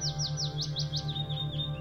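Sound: old-growth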